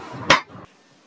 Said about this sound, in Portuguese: Ficam frente a frente. e Ele dá um tapa no rosto.